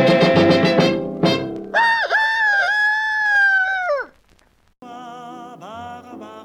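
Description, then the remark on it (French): A rooster crows loudly, a long drawn-out call followed after a brief pause by a second crow, with some rough squawking just before; no voices. “du village vous dit dans son langage de ne pas sauter du coq à l'âne pour arriver.”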